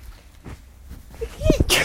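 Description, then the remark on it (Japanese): A sudden sneeze: a quick voiced intake of breath building up, then a sharp, hissy burst at the very end, loud against a quiet background. “ああもうめっちゃくしゃみした最悪”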